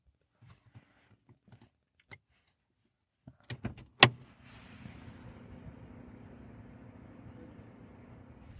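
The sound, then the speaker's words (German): A handful of sharp mechanical clicks and clunks, then a steady low electric hum sets in as an electric car charges, droning on evenly, fairly quiet, with no one talking. “Ja, vielleicht hört ihr es gerade summen. Funktioniert gut.”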